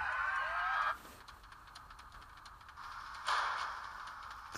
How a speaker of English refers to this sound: Yeah, the door closes.